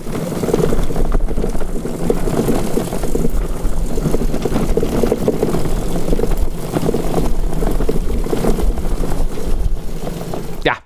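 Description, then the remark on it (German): A street sweeper runs steadily, its low engine drone blended with a broad, rushing hiss of brushes, holding an even, fairly loud level throughout before cutting off abruptly at the end. “Richtig, eine Kehrmaschine.”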